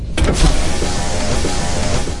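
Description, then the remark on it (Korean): A car's power window motor whirs steadily for a couple of seconds as the driver lowers the glass, a smooth, continuous mechanical hum with a low rumble underneath and no voices. “우아하게 창문을 내리시더니”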